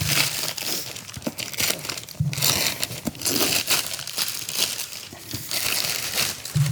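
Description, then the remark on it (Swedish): Continuous crinkling and crumpling of paper and tape as a gift package, wrapped layer upon layer with lots of tape, is pulled open, with sharp rustles and brief tearing bursts throughout, no voices. “Jag, jag, ska också säga att jag älskar ju det här äh, att slå in paket så här.”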